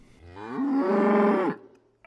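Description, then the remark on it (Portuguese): A single long moo from a big brown cow, loud, rising in pitch and then holding a steady, full-throated drone for about a second before cutting off, with no voices. “O velhinho e a velhinha tinham seis canários amarelos, cinco gansos brancos, quatro galinhas pintadas, três gatos pretos, dois porcos barrigudos e uma vaca marrom bem grande.”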